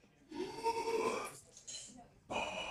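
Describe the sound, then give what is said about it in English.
Deep, rushing breaths of a breathing exercise, drawn in and pushed out to a count of five in and five out, a long forceful exhale followed by a shorter breath and the start of another, with no talking. “Count of five in, count of five out”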